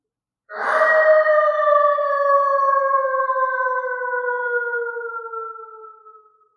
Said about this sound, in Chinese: 从某个方向传来一声悠悠的狼嚎，听起来不太远。